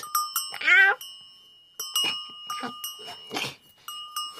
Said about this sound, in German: Ey, das ist super lustig. Mit dieser Glocke um den Hals bist du richtig gut zu hören.